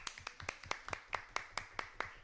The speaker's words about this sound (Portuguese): Vamos uma salva de palmas, porque eu esqueci o.